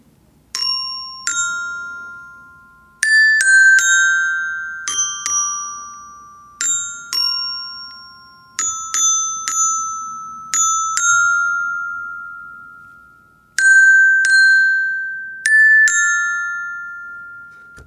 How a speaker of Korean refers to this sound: 소리가 참 예쁘죠. 어, 참 좋아요. 역시 그, 그, 제가 어른이 됐어도, 어, 이 추울 때, 아, 이런 실로폰 연주 참 좋은 것 같습니다. 마음이 따뜻해지셨죠?